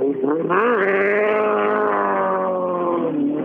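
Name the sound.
car engine accelerating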